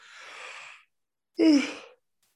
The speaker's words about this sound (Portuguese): Aquele momento que o pessoal que tá assistindo boceja também. É, bem isso.